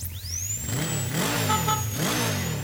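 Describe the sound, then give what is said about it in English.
In a Geico insurance commercial, a motorcycle ridden to a dental checkup revs loudly, its pitch swelling and dropping in two quick throttle blips over a steady idling rumble, with a thin high whine above and no voices. “When you love riding a motorcycle, you want to ride it everywhere, even getting a dental checkup.”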